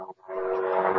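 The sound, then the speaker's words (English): A loud, steady mechanical drone of an army helicopter passing overhead, its rotor hum swelling in after a brief pause and holding strong, with no one speaking. “That's an army helicopter coming over an my An army uh, helicopter.”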